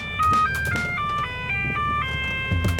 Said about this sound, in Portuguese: futebol é paixão. E cada torcedor tem a sua. A desse aqui tem quatro rodas. E ainda toca o hino por onde passa.